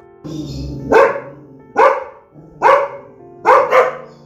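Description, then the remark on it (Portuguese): A dog barks four times in a steady rhythm, each bark loud, with a low growling rumble underneath between them. No one speaks. “O menino Paulo amava observar o mundo ao seu redor, os bichos da natureza e os bichos de casa, os gatos manhosos e o bravo cachorro.”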